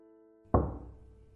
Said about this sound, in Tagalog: Mukhang nasasanay ka na sa mga katok